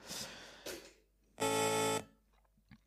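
A loud, steady buzzing horn blast marking the end of a match, lasting about half a second, harsh and rich in overtones, sounding on its own after a couple of brief noisy bursts.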